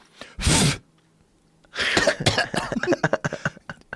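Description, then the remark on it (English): A single harsh, loud cough, then a pause, followed by a rapid, sputtering run of hacking coughs as someone chokes on dusty raccoon fur. No talking. “Choking up dusty coon fur.”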